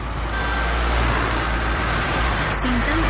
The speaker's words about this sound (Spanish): ruido de coches.